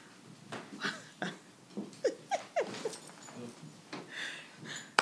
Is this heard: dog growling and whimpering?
yes